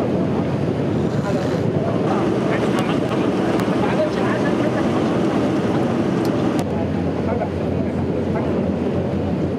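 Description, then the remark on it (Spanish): The container ship Ever Given sailing through open sea again: a steady, deep engine rumble blended with constant rushing water and wind buffeting the microphone, unbroken and loud throughout. “Aquí lo escuchamos ya surcando el mar de nuevo,”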